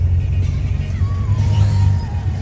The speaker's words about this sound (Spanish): Ahora, ¿cuál es el problema de eso? Pues que la aspiradora tiene un ruido sumamente desagradable